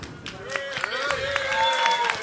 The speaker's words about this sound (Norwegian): Kardinalet. Kardinalet. Skal vi ta en klapp på kardinalet?